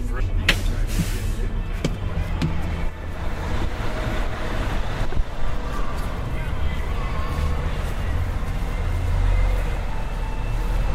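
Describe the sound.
A large diesel bus idles with a steady low rumble after dropping passengers at a muddy roadside by a festival's press entrance, then the engine swells as it pulls away. Faint, indistinct voices sit underneath.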